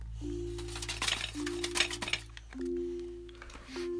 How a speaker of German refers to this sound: Wenn wir da fertig sind, ihr seid ja auf sicherem Untergrund, kommt jetzt das Backpulver ins Spiel. Das Backpulver schütten wir in das andere Glas, welches ihr unter der Aluminiumfolie versteckt habt.